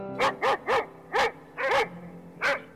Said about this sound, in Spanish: Me refiero a los sonidos ambientales, a todo aquello que se escucha al iniciar el día en el lugar en el que vives. Puede ser el canto de los pájaros, el ladrido de un perro